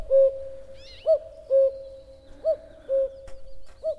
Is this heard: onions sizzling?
no